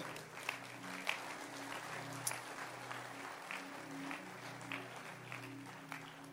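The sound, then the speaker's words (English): A church audience claps steadily for a woman welcomed to sing a song, a dense, even patter of many hands that carries on without a break, with a low sustained tone humming underneath. “Clap your hands for her.”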